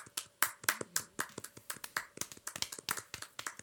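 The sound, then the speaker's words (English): A small group claps hands in brief applause for Denny O'Neil, a quick irregular patter of sharp, overlapping claps that stays fairly soft for a few seconds, with no talking. “Uh, uh, an applause for Denny. Yeah, I'll give one too.”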